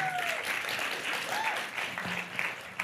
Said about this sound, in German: Kriegen wir nochmal einen Applaus für alle Erstbesucher.